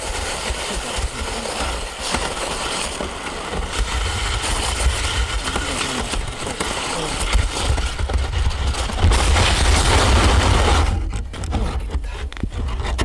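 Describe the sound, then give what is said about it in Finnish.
A steady, loud rattling scrape of kick sled runners over ice with water on top, with a continuous low rumble and gritty vibration, shifting and intensifying toward the end without anyone speaking. “miltä se tuntuu mennä potkukelkalla”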